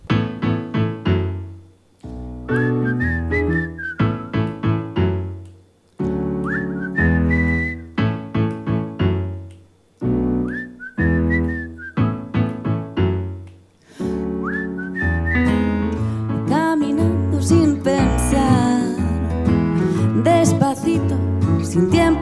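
A band plays a song with a bright whistled melody carrying the tune over steady, rhythmic accompaniment, starting in short bursts before settling into a fuller, continuous groove.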